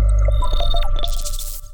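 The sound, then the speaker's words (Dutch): An audio description sound logo plays alone, signalling on television that a programme can be followed with audio description: a quick chime-like jingle of bright sustained tones with a sweeping shimmer, clear and fairly loud, lasting under two seconds. “Wat je hoorde is het zogenaamde soundlogo van audiodescriptie.”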